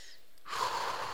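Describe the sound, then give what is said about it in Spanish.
A single airy breath drawn in sharply after a brief quiet moment, eyes closed, as a simple meditation exercise; a breathy rush of air that swells and holds steady, with no talking. “Solamente el hecho de cerrar los ojos, inspirar”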